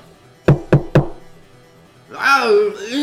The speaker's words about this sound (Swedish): hur du knackar på dörren.